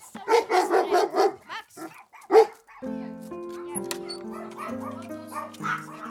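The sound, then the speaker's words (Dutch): A rapid string of five or six loud barks, a brief pause, then one more sharp bark before soft music begins and continues alone. “Ze woont samen met de enorme herder Max, twee kleine chihuahuas, een troepje kippen”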